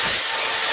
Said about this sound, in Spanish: Este es el ruido de las reformas